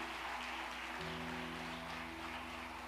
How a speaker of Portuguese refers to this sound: Você já pode dar uma forte salva de palmas ao Senhor por isso?